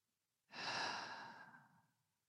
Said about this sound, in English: taking some nice, big, full breaths, and giving ourselves some space.